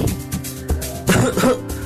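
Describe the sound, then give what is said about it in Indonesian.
Several short, rough coughs burst out in quick succession, with a steady musical background humming underneath throughout, in an Indonesian public-service message about COVID-19 symptoms. “batuk-batuk, dan sesak napas.”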